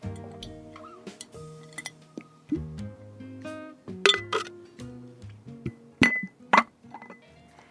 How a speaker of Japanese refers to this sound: 本当にその中でもすごくドキリとした言葉を書きましたではまた瓶に入れていきたいと思います